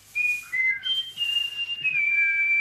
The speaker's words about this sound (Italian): Nessuno, il merlo è stato. È stato il merle, sta. È stato lo merlo, è stato. A quest'ora passa sempre lo merlo.